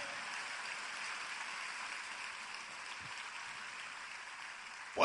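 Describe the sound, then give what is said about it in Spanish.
A church audience applauds the Lord steadily, a dense wash of many hands clapping together that holds at an even level for several seconds, continuous, with no talking over it. “El que lo crea, diga amén y dale el mejor aplauso que le hayas dado al Señor en mucho tiempo.”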